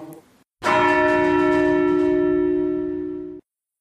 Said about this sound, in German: Äh, wir sind da rein und haben die Glocken angeschwungen, beziehungsweise den Klöppel geschwungen und dann die Glocken angeschlagen, um den Ton aufnehmen zu können.